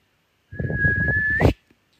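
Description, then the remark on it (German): A single short, thin human whistle holding one steady pitch for about a second, breathy and weak, with a rush of air underneath and a slight upward flick at the end. “Ein kleines Pfeifen, das nicht wirklich gelungen ist.”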